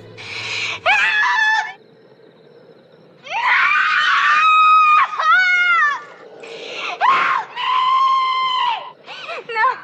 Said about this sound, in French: L'extrait que vous allez entendre, c'est la scène où Kong découvre la jeune femme qui lui a été offerte en sacrifice. Tout comme … avant elle, Jessica Lange crie, et on entend aussi le rugissement de Kong.